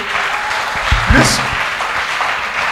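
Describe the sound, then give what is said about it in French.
A church audience applauds steadily throughout to acclaim God for a man's life, a dense wash of clapping, while a single voice rises in a brief cheering shout near the middle. “Je veux que tu acclames Dieu pour sa vie”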